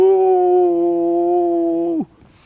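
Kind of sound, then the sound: vocal imitation, imitated wolf howl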